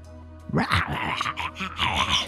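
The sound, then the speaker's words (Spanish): A loud dog barks and growls in a quick run of rough, overlapping vocal bursts lasting about two seconds, with no talking. “Ahí tienen una buena experiencia, la del perro ladrando.”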